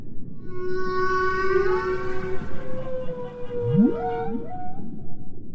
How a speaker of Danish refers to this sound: Ja, det lyder lidt mystisk, men faktisk meget smukt. Ja, det er pukkelvalernes sang. Hvad synger de om?